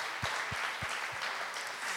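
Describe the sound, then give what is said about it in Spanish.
An audience applauds the fathers present and watching online, with steady, dense clapping, joined by four evenly spaced low thumps early on that fade out after about a second. “Así que quiero que le demos un fuerte aplauso a todos los papás que están conectados y que están en este lugar.”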